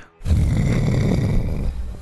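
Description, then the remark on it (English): A person imitates the huge, rumbling snore of a massive sleeping giant slouched against rubble: one long, loud, gravelly inhale-like growl lasting nearly two seconds, with no other talking. “uh, snores in your direction.”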